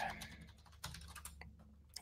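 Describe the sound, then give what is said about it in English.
Quick, irregular clicking of keys on a computer keyboard, fairly quiet, with a low steady hum underneath and no voices. “Hang on, let me mute this so you guys don't hear me typing.”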